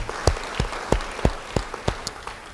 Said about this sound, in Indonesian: Beri tepuk tangan pada Tuhan. Haleluya.